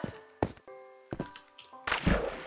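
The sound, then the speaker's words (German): Two short dull thumps, then a loud, hissing splash as a video game character jumps into water after missing a boat, clear with no talking. “ich bin ins Wasser gesprungen, obwohl ich ja direkt aufs Boot wollte.”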